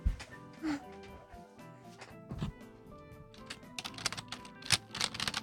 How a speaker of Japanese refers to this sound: キーボードキーボード触りたいの触ってごらんよ。